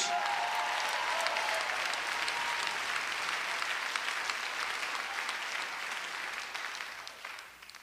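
An audience claps steadily for a man volunteering for refuge, a dense wash of applause that holds strong for several seconds before gradually thinning and fading toward the end.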